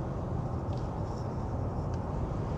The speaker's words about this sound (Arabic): أولا أنا بعتذر لكم عن إذا كان في بعض الضوضاء أو الأصوات المصاحبة لأني أكلمكم من وراء الميكروفون أثناء آه، آه، اتجاهي من العمل إلى البيت في السيارة